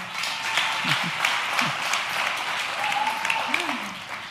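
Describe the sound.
Steady audience applause fills the whole stretch, a dense wash of many hands clapping at an even level, with a few faint voices calling out beneath it.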